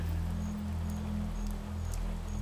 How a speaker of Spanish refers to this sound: Llueve sobre la triste calle gris. Llueve. Llueve sobre los techos de paja y las catedrales, sobre las baldosas y los adoquines.